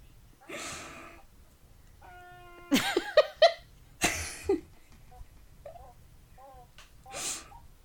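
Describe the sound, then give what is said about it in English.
A seagull calls out in a series of short, mewing squawks, clear, with a few soft, breathy bursts scattered between the cries. “Clearly, this seagull it. Uh, agrees with you and joined wanted to join in his opinion.”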